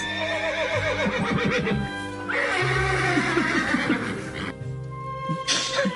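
A horse neighs loudly, with shrill, wavering whinnies that repeat across several seconds and fill the whole stretch with no talking.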